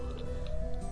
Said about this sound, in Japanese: あーなんか、収録中のアクシデント感がすごいですね。外でピーポー、うーなってますね。